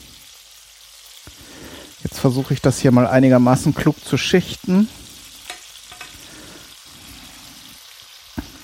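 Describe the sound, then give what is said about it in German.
Meat pieces sizzle steadily in a frying pan, each piece having been seared on its frying side, a constant crackling hiss, while a man talks briefly in the middle and a few soft clinks of utensils sound. “Jetzt haben alle Stücke mal die Pfannen und die, die Bratseite gesehen.”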